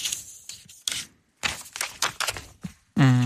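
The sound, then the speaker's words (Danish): Papers being shuffled and fiddled with, making a series of irregular, crisp rustling bursts with short pauses between, followed at the very end by a brief voiced hum. “Lad være med at stå og pille ved alle de papirer hele tiden.”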